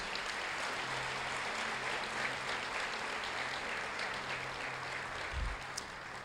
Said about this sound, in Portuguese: Você pode aplaudir o Senhor Jesus?